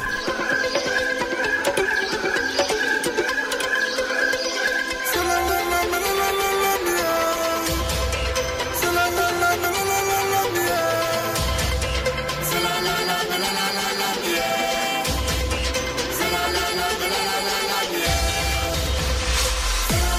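An upbeat pop song, the official song of the 2013 Africa Cup of Nations, plays at full volume, opening with a lighter melodic intro before a heavy bass-driven beat and full band kick in around five seconds and continue steadily.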